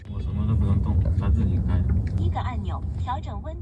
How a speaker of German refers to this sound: Das Auto fährt ohne Fahrer, vollautonom im normalen Stadtverkehr. Auf dem Fahrersitz sitzt nur noch ein Aufpasser, der im Notfall eingreifen kann.